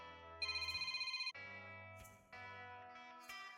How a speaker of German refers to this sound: Oh, mein Telefon. Augenblick bitte.